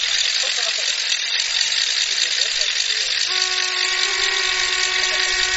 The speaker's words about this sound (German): Oh, jetzt hat wieder ein paar Tröten hier.